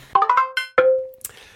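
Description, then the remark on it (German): A telephone rings with a bright, bell-like electronic chime: a quick run of notes, then one longer tone that rings out and fades, with no talking. “man hört das Telefon nur im Hintergrund klingeln”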